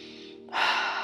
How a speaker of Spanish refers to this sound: Respirando profundo.